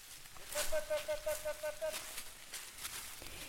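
A herd of goats runs down a hill through dry forest undergrowth in the Morvan regional park, northern Burgundy, France, with scattered crunching and rustling steps, while a wavering, bleat-like call rises briefly above the scuffling before it fades back to footfalls.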